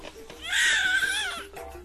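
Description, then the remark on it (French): A newborn baby gives a single loud, wavering cry that swells and fades over about a second, clear, with a short trailing whimper at the end. “C'est votre bébé maintenant.”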